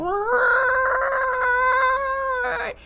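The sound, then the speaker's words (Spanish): A person's voice imitates the siren of a zombie board game that sounds at timed intervals: a single loud wail that swoops upward and holds a steady, strained pitch for a couple of seconds before breaking off abruptly. “Y cada cierta cantidad de tiempo suena una sirena así como...”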